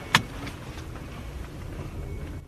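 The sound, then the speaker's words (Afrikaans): An electric car pulls away with a low, steady hum and road rumble, a single sharp click at the start, and no engine roar; its pedestrian warning sound plays up to a speed of 30 km/h. The sound is continuous, with no talking. “Die geluid vir die voetgangers gaan tot en met 'n spoed van 30 km/h.”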